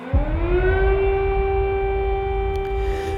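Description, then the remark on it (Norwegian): An air raid siren in Ukraine wails steadily during Russian attacks, its tone rising at the start and then holding a long sustained pitch over a low rumbling background, loud and unbroken throughout. “Lyden av flyalarmer holdt ukrainere over hele landet våkne gjennom natta og morgenen.”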